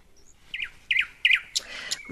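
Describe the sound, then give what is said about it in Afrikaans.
A finch in Limpopo chirps a run of five short, bright tweets in quick succession, the last few slightly busier, with no one talking. “Liewe vink, Sal jy asseblief my vriend wees en my meer vertel van die omgewing hier in Limpopo?”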